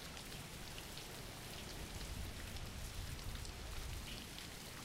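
Steady rain falls continuously, a dense hiss of drops spattering on a surface with a soft low rumble beneath, even in level throughout with no voices.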